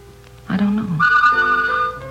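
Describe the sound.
A bakery delivery truck's chime rings out in sustained, bright tones lasting over a second, clear, right after a brief burst of someone talking.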